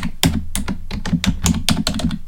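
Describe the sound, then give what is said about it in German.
Rapid clatter of keys being typed on a computer keyboard while looking up an author online, a quick irregular run of sharp clicks with no voices. “Ihr hört die Tastatur.”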